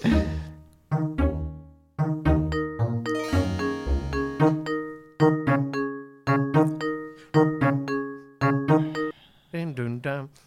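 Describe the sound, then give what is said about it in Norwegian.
A melodic run of ringing chimes, with bright sustained tones struck one after another in a steady rhythm. The sequence is fairly loud and ends on a warbling, wavering note. “Dun, dun, dun, ja, ja, nå begynner det å ringe noen bjeller der Nå begynner det å ringe noen bjeller der Akkurat idet chimesene kommer, Fring, så begynte det å ringe bjellene dine her nå.”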